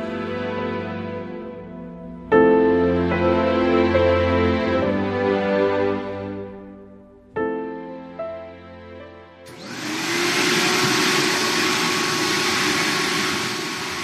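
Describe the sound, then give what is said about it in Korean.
A motor hums with shifting tones, then a vacuum cleaner roars to full power, a loud, steady whooshing drone that carries on to the end, as a mother vacuums at home in the evening after the dishes are done. No one speaks. “저녁상을 물리고 설거지를 끝내자마자 청소기 돌아가는 소리가 요란했다.”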